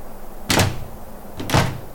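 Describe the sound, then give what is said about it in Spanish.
Two loud, heavy knocks on a wooden door, about a second apart, each a deep thud standing out against a quiet background with no voices. “Un día, un fuerte golpe llamó a la puerta.”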